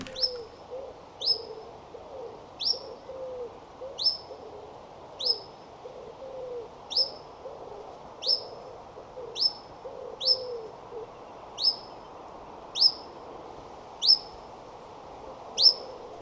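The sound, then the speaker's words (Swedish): A chiffchaff gives short, sharp angled contact calls, about a dozen evenly spaced roughly every second, with a dove cooing softly in the background. “Vi har kycklingpips tristis, vi har chililockande. Vinkellock.”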